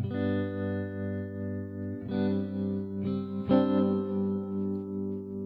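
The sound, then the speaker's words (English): Electric guitar chords, played with the pickup selector in the fourth position using both neck and middle pickups, ring out through a tremolo effect, their volume pulsing in a steady wobble. A sustained chord opens, followed by three more strums in quick succession, with no voices. “So if I switch my guitar to the uh, the fourth position, so that's using both the neck and the middle pickup, and I turn on that tremolo, you get a real soulful.”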